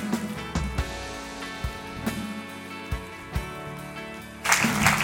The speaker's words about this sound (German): Und äh, darum geben wir Ihnen einen riesen Applaus auf der Bühne.